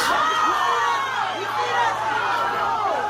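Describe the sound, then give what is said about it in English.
A dense crowd of young voices shouts and yells over one another continuously, loud and chaotic, with overlapping cries and chatter, during a brawl between NYPD officers and a group of teens at the Jay Street MetroTech subway station on a Friday afternoon, recorded on cell phone video. “There are calls for a formal investigation into a brawl between NYPD officers and a group of teens at the Jay Street Metrotech subway station on Friday afternoon.”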